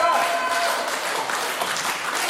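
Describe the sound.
A crowd applauds with steady, dense, loud clapping that holds throughout, a voice briefly audible at the very start before the clapping takes over.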